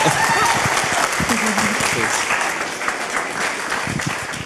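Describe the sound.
A crowd claps steadily for a few seconds, a dense, sustained patter of many hands at a fairly loud level, with a few voices faintly mixed in underneath.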